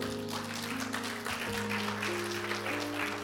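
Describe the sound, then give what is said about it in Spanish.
An audience claps steadily in a dense, continuous wash of applause over sustained low musical tones, with no clear pauses for about three seconds, giving a round of applause to themselves. “Desen un aplauso a ustedes mismos.”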